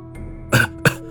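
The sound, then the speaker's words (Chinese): A man coughs twice in quick succession, two short, harsh bursts with the second slightly briefer than the first, set against a low, steady background hum. “三爷咳嗽了两声，急促地吩咐我，”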